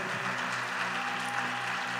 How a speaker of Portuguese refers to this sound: Então o que eu queria que vocês fizessem, por favor, vocês puderem, quem está aqui na frente, olha ali para a câmera, dá uma salva de palmas para sua líder,